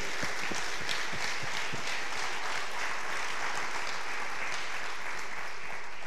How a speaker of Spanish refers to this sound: Entonces, si de repente me acompañas dándoles un aplauso a ellos y gracias a Dios por, por sus vidas.